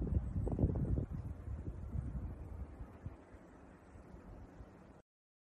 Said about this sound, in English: You hear it? There was a little wind in the background. It's not a lot of snow yet, just a little bit,